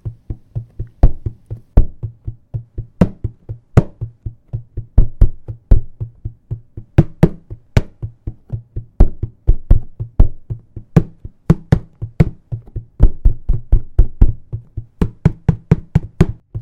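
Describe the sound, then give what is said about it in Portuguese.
A steady rhythm is drummed by hand on a container turned mouth-down, with dense hollow thumps in a repeating pattern and occasional brighter accented hits, loud with no talking. “Depois, coloca ele virado com a boca para baixo e nós vamos tocar juntos. Faz assim. A gente pode manter esse som aqui.”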